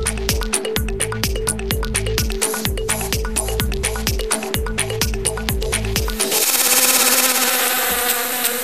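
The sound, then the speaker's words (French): A buzzing bee effect set against a quick, rhythmic musical beat, giving way near the end to a steady, dense droning buzz; the jingle of the radio segment La Minute qui bourdonne, presented by La Ruche, a local crowdfunding platform. It is loud, with no talking. “La Minute qui bourdonne, une présentation de La Ruche, votre plateforme de financement participatif de proximité.”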